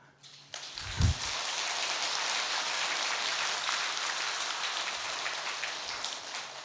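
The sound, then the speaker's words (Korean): An audience breaks into applause, a dense, steady crackle of many hands clapping that starts abruptly and holds at an even level for several seconds, with no voices over it. “제가 박수 한번 쳐달라 그랬는데 미리 알고.”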